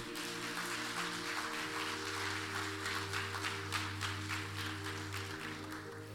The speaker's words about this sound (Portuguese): Você pode dar um forte aplauso ao Senhor?